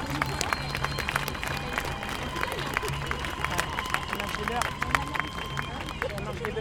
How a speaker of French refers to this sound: Ce soir, Jamila Bouhered est à nos côtés. Elle soutient cette marche en pensée. Elle ne pouvait pas être là. Applaudissez-la, même pour ceux qui ne la connaissent pas.